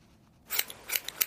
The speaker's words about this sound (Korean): 보물소리는 미리 들려드립니다. 자 들려드릴게요. 무슨 소리 같아요? 가위질 소리입니다.